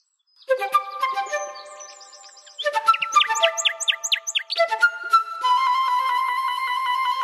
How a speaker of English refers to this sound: just seeing how incredibly moved they were by listening to this incredible bird song that struck up when all the other birds went quiet.